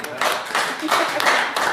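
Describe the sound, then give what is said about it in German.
An audience claps in a dense, steady burst of applause, many hands overlapping into a bright, crackling wash that holds at an even loudness from start to finish. “Einen Applaus für dich.”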